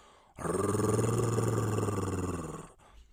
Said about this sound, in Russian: Филипп начал подходить к кольцу хищников, окруживших девочку — Антон соскочил на землю, а дракон грозно зарычал.